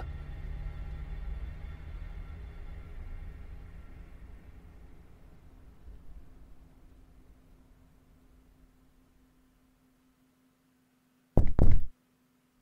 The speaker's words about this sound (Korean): 안에 계신 거 다 알고 있습니다. 문 여세요! 문을 두드리며 고래고래 소리를 지르는 경찰들의 목소리를 듣자 머리가 지끈거려 왔다.